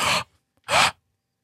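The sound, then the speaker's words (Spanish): Two quick, airy breath intakes by the speaker, separated by a short pause, each a sharp, breathy rush of air with no talking around them. “Fíjate que las respiraciones mías a veces puede ser que”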